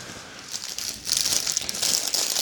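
Crinkling plastic packaging rustles continuously, growing louder after the first second, as if a snack bag is being opened and handled at close range with no voices.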